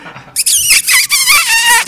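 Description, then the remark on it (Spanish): A person whistles loudly: a piercing, shrill tone that starts after a brief quiet moment, wavers and slides in pitch, and carries on for about a second and a half with a couple of short breaks. “Voy a silbar, voy a silbar. Cuidado con los oídos.”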